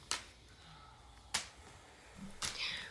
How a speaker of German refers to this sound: Die Schläge kommen schneller und härter und mein Rücken erinnert, wo mich die Peitsche schon zuvor getroffen hat. Sie trifft heiß und der Wind ist kühl.